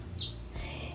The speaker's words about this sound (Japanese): 今日この放送を収録しているのは5月6日の土曜日。珍しくね、朝のうちに収録をしています。今6時38分ですね。なので、えー、少し窓を開けて収録をしていますけれども、鳥の声が入っているかな